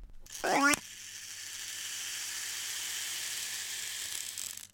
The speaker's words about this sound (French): Déjà, le minuteur de 5 secondes, il est trop génial. Écoute ça.